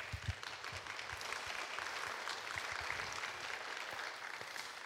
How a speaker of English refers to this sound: And if y'all can just give him a round of applause.